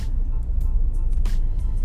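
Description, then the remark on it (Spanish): A steady, loud low rumble of car traffic on the road, backed up to Badía at the site of an accident, with several brief hissing whooshes as vehicles pass. No voices are heard. “Y parece que tráfico hasta Badía.”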